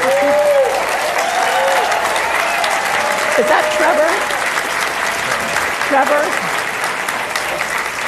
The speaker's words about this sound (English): In case the audience, in case our listening friends are wondering why all the applause, 29 year old